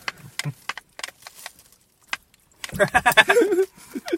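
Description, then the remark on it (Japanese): Popping candy, a dagashi sweet, crackles and snaps in the mouth in irregular, scattered bursts of sharp little pops, still popping toward the back of the mouth while talking. It is followed by a short stretch of muffled voice sounds with a few more faint pops. “意外に喋ったらパチパチ奥奥の方でするから。”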